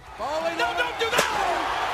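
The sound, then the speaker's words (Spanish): A single sharp, loud metallic slam of a metal folding chair in a wrestling match, as Mick Foley puts Edge's head on the chair, cracks out over a man talking steadily, then fades quickly as the speech continues. “Pondría la cabeza de Edge sobre una de esas sillas metálicas y...”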